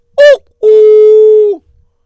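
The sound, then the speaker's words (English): A two-note doorbell chime, voiced by a person: a short, wavering higher note followed by a lower, steady tone held for about a second, with nothing else around it. “Ah, uh, somebody's ringing a bell.”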